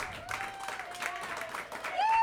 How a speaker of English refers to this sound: Hey guys, one more time. How about a big round of applause for all of our artists today?